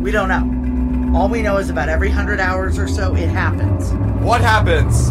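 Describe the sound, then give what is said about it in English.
A deep, droning alien engine hum, from a harp-like device in an engine room, powers up beneath several people talking: a continuous low rumble with a steady mechanical tone that grows slightly louder toward the end. “That noise you're hearing, that's power up.”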